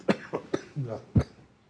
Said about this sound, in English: picked up this cough yesterday, or day before yesterday, so pardon me.